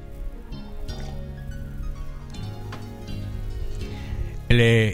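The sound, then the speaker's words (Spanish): Someone takes a small drink of water, with soft liquid and swallowing sounds, ending in a brief louder gulp or exhale. “De todo un poquito de agua. Hoy amanecí con mucha sed.”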